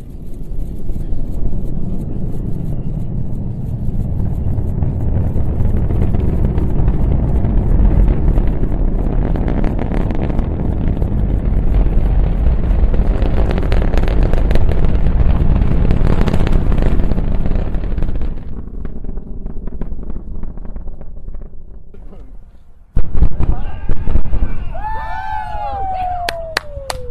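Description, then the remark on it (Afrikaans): A Falcon Heavy rocket launch thunders with a loud, steady, crackling roar that slowly fades, then sharp supersonic booms crack near the end, followed by faint voices. “En uh, ek uh, dink ons moet nou luister na die klanke van die lansering van hierdie groot tuig.”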